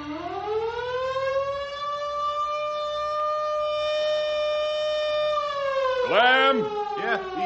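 A fire siren sounds for a fire about a mile outside of town, winding up from a low groan into a loud, steady wailing tone that holds for several seconds, then breaking into a few quick rising-and-falling whoops.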